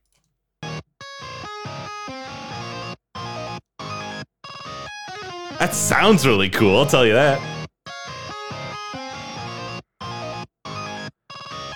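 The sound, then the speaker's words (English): A distorted electric guitar played with hammer-ons and pull-offs, chopped into abrupt on-off bursts by a kill switch pedal rather than one on the guitar body, the sound cutting in and out in an irregular stuttering rhythm, with a voice talking briefly midway. “He's using a uh, he has like a kill switch pedal there. Uh, which is giving it that really cool sound.”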